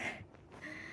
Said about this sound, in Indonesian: Oh iya, kalau kalian denger suara ada dengkuran, itu kucing gue lagi tidur.